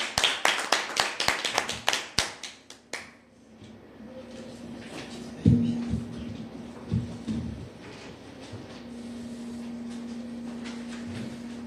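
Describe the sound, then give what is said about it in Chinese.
Brief applause to bring on the evening's video at an Amway business presentation: a quick run of sharp, evenly paced claps lasting about three seconds, then fading to a low steady hum with a few soft thumps. “我们以热烈的掌声，请出今晚的影片。”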